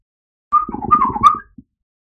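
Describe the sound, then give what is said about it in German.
A small robot hops up a step and beeps to Nino in a quick warbling, chirpy burst of about a second, bending up and down in pitch. It sounds clear, with no talking around it. “Ja, der kleine Roboter springt diese Stufe hoch und piept dann Nino zu.”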